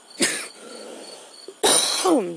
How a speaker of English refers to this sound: Sorry, y'all. Since I quit smoking, I've been coughing up all kinds of shit.